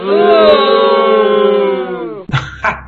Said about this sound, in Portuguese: Então, deixa por conta do quinto elemento dar uma vaia para ele.